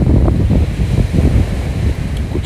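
Steady roar of ocean surf with gusty wind buffeting the microphone, a continuous loud rumbling wash with no voices.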